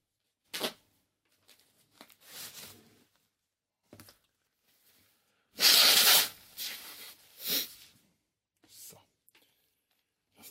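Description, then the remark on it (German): A loud nose blow into a tissue, preceded by faint rustling and crinkling of the tissue, with a couple of shorter snorty blasts afterward and quiet pauses between. “Taschentuch wird, wie es sich gehört, standesgemäß zerknüllt und beschneuzt auf den Teppich geworfen.”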